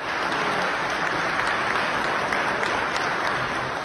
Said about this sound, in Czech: Českému parlamentu promluvil ukrajinský prezident Volodymyr Zelenský. Za svůj projev sklidil bouřlivý aplaus od všech přítomných zákonodárců.